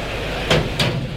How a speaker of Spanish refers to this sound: Ahí va el torilero, vamos a oír los sonidos que se generan en la puerta de Toriles de la Malagueta.